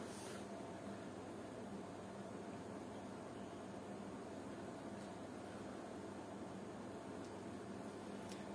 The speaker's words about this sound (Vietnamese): hy vọng là rõ vì đang bật điều hòa biết là có kêu to không